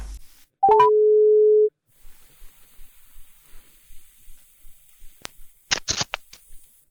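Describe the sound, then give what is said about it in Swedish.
A few quick rising beeps lead into one steady, droning ringback tone of about a second on an outgoing phone call to a farmer in Avesta, Dalarna, Sweden, followed by quiet line hiss and a few sharp handling clicks near the end. “jag har ringt till Hedemora i Dalarna, eller hur?”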